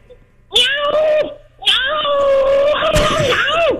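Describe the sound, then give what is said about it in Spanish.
A person imitates a cat in heat, letting out two loud, drawn-out wavering yowls: a short one, then a longer, rising and falling wail. “Ok, oye la gata cuando están eh, locos por la canquiña.”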